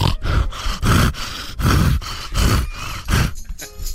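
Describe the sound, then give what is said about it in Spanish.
A voice imitates a woman's 'asthmatic orgasm' with gasping moans: a rapid series of loud, breathy, rasping grunts, around eight in a steady rhythm, each a harsh wheezing heave before the sound cuts off. “Pues, el orgasmo asmático es cuando la mujer está así.”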